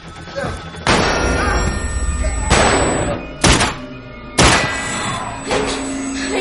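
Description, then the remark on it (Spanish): A female agent pounds heavily on a door, four loud, booming thuds spaced unevenly about a second apart, each ringing out briefly over a low, steady background hum. “Golpea la puerta por la que salieron Landon y la doctora.”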